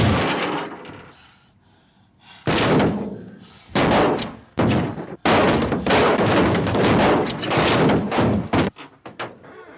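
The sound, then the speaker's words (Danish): Heavy zombie bodies thud down onto a roof one after another, a run of loud, overlapping impacts following a quieter rumbling start, with no talking. “Øh, de sidder derinde, og det ser bare bum, bum, bum, bum ned ovenpå.”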